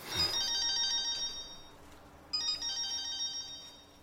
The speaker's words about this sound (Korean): 그 순간 전화가 왔다.